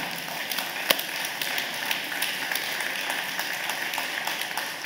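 A church audience at Mission Grove applauds steadily, many hands clapping at once in a dense, continuous wash of sound that holds at an even level throughout.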